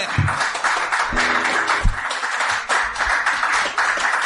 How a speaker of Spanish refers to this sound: Ese aplauso fuerte.